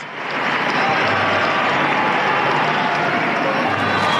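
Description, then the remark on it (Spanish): A large crowd applauds steadily at the Arena Vicente Fernández on the Los Tres Potrillos ranch, applause for the late singer Vicente Fernández as his coffin arrives, a dense, continuous wash of clapping that stays loud and even throughout, with no individual voices standing out. “El aplauso que suena para don Vicente Fernández, el número uno de la canción mexicana, el rey.”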